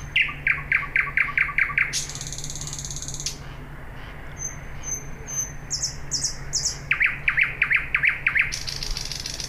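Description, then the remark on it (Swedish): A nightingale sings a varied, energetic song alone: rapid runs of sharp repeated chirps, a harsh buzzy rattle, a few clear whistled notes, then another quick chirping burst over a low steady hum. “För den sjunger som en galning.”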